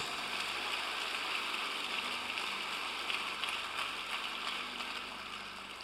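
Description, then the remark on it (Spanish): An audience at a religious service applauds steadily, a dense wash of many hands clapping at once that holds for several seconds before easing off slightly at the end. “Dale un fuerte aplauso.”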